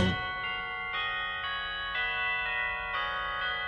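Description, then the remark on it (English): Christmas church bells ring in a steady peal, with fresh strikes about every half second layered over long, shimmering overtones that keep sounding between hits. The bells are clear and fairly loud, with no voices. “Christmas bells”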